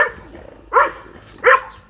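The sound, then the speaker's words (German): A dog barks twice, with a short pause between the two loud barks, and no other sound around them. “was ist da mit dem Hund denn richtig?”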